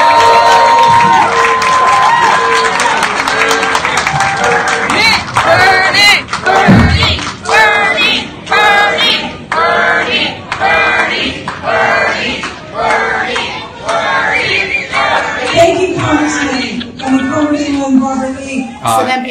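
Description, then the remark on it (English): A large crowd boos loudly and continuously for about twenty seconds, a dense wash of overlapping voices with occasional louder shouts rising above the din. “people started booing.”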